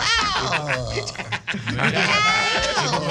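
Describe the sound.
A person mimics a sheep's bleat with a wavering, nasal vocal sound, fairly loud, mixed with laughter from others.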